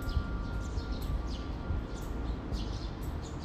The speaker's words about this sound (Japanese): そして今ね、皆さん喋っててなんとなく気づくと思いますけどね、鳥のさえずりがね、すごい聞こえるんですよね。聞こえてます今でもこう静かにしたら聞こえますね、これ。